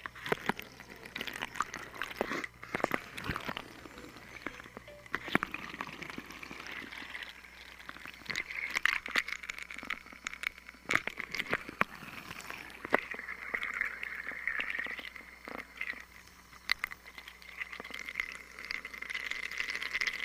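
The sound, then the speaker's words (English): Steady splashing and trickling water from a water fountain, running continuously with a bright, hissing spray and occasional sharper splashes, at moderate volume. “This next one is a water fountain.”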